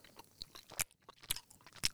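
Crunchy chewing of hard candy, with three sharp, crackling bites spaced about half a second apart over softer, wet mouth sounds; no talking.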